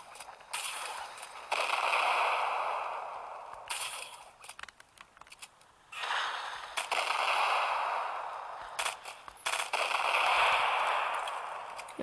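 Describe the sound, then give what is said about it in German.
A string of loud video game explosions, each a sharp crack followed by a roaring, hissing burst of debris noise that swells and fades, repeating over several seconds with no voices. “Kabum.”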